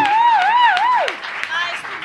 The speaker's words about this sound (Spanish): ¡Vamos! ¡Vamos! aplauso muy grande, por favor.